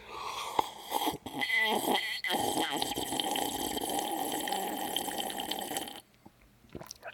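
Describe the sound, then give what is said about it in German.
Gulping and swallowing as someone drinks water from a glass, with wet throat sounds and a breathy exhale, running steadily for several seconds before stopping abruptly. “Ja, ich habe tatsächlich auch schon eingeschenkt gehabt. Ich habe es nur vergessen mitzunehmen.”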